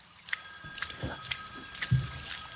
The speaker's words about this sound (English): The phone rings. Uh, that's my grandma.